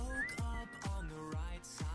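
A bright whistled melody rides over an upbeat pop backing track, with deep bass thumps landing about twice a second, played at 8 o'clock on a Saturday morning on the WEEI radio show Cordischi and Coit. It sounds fairly loud, and nobody talks.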